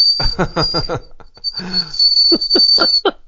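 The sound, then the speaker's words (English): A person whistles through their teeth in imitation of a boiling kettle, holding one loud, shrill high-pitched tone for about three seconds over rhythmic breathy puffs and bursts of voice. “Kettle's boiling.”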